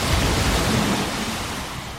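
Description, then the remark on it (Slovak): A steady, dense wash of sea waves, loud, with a constant hissing roar and no distinct breaks or voices. “Toto je to more.”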